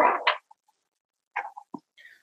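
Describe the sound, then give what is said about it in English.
A chair creaks and squeaks in several short, irregular bursts: a longer groan at the start, then scattered small squeaks after a pause, with no talking. “Uh, probably my chair you're hearing.”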